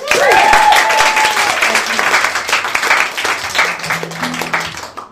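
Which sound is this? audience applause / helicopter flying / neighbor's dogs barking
audience applause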